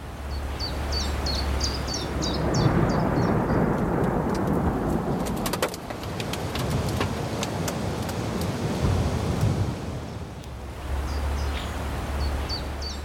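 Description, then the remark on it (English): Deep rumbling thunder rolls under steady rainfall, with sharp crackles in the middle. High chirping birdsong can be heard at the start and again at the end. “I bet you did, as this week's topic is the weather.”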